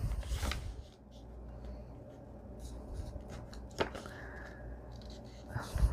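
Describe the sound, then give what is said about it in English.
Soft paper sounds: crisp rustling and a few sharp creasing scrapes as a sheet is folded along a fold line and pressed flat, with quiet handling noise between the louder crinkles. “So I'm going to make it just before the fold line, which would be about here. Okay, can you see? Can you see? Now I'm going to fold it in.”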